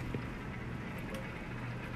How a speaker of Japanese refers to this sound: 多分なんかこれ今ね雨の音も収録されてると思いますけどものすごい量の雨が 降っていてどうしようって感じですね